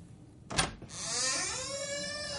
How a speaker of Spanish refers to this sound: La puerta se abre.